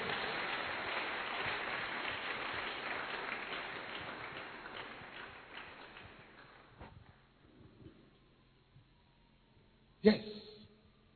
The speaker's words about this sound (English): Clap your hands for these young people.